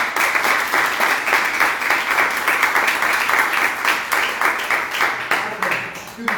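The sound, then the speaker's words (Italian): Sustained, dense applause from an audience, many hands clapping in a steady crackling wash that stays loud and even for several seconds with no voices standing out. “quindi direi fare un applauso.”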